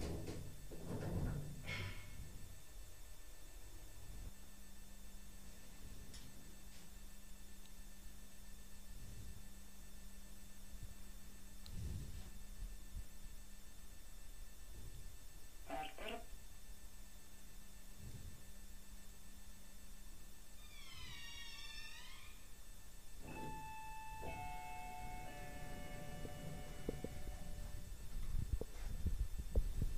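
Quiet outdoor ambience on a cold, rainy day: a steady low rumble and faint hum with occasional soft thumps, a brief burst of high chirping midway, and a few tonal beeps near the end.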